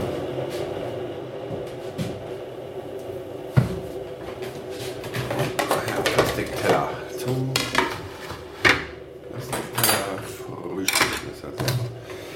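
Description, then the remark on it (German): Breakfast dishes and utensils clatter and clink, with scattered knocks, scrapes and sharp taps of cutlery against crockery over several seconds, busier toward the end, over a low steady background hum. “Dann werde ich auch nicht mehr die ganzen Utensilien aufzählen, die ich hier gerade so in die Hand nehme”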